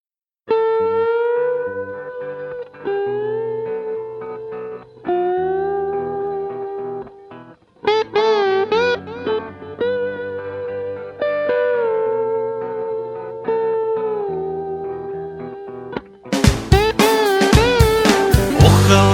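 A song plays with a bright, wavering melodic line in repeated phrases over steady accompaniment, then a fuller, louder band section with crashing drums bursts in near the end.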